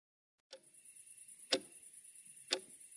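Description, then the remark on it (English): A bedroom clock ticks steadily at 2:37 a.m., three sharp clicks spaced about a second apart over a faint, high-pitched background hum, clear with no talking. “That's the clock in my bedroom, and right now it's telling me it's 2:37 a.m.”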